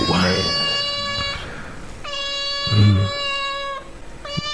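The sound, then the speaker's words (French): A recording of cats meowing, played at home: three long, drawn-out meows in a row, loud, each a steady wailing tone, with brief low voices murmuring underneath. “Moi, souvent chez moi, là, je, je, laisse jouer ça des sons de chat qui miaulent comme ça.”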